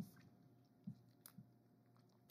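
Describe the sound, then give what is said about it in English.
Quiet mouth noises of someone sucking and chewing on a Whopper candy, with soft wet smacks and a few sharper clicky pops at irregular moments, no talking. “Sorry, I'm sucking on this whopper.”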